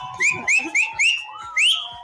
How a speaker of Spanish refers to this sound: Extrañamos el silbido la última vez. Ahí está. Ahí está.